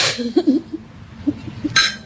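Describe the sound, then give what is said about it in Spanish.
Glasses clink together in a toast, a bright ringing tap at the start and another near the end, with soft low murmurs and rustling in between. “Ahora no, pero después de un brindis quizás.”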